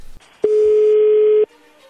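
A single ringback tone from an outgoing phone call to a woman: one loud, steady, mid-pitched hum lasting about a second, then cut off, with faint line noise before and after and no talking.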